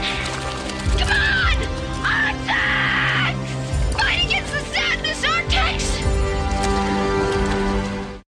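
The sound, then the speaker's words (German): The dying horse in the film The NeverEnding Story whinnies and neighs loudly several times in shrill, wavering, distressed bursts, with a steady low rumble and dramatic background sound running beneath. “Aber dieses Pferd, da müssten wir drüber reden, weil die Leute, wenn, wenn man an unendliche Geschichte denkt, dann denkt man an dieses sterbende Pferd.”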